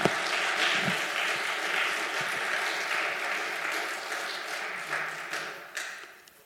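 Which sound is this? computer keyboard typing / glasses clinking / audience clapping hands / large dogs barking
audience clapping hands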